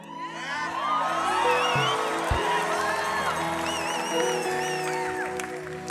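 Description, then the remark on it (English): A large audience at a prayer conference shouts and cheers together, with scattered high whoops rising over a dense, steady roar that stays loud for several seconds. “I kind of think that's worth shouting about too, don't you?”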